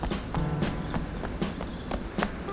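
Quick, evenly spaced footfalls of someone running past the town hall and fire station, about eight sharp steps in a steady rhythm, fairly loud over a low continuous background rumble.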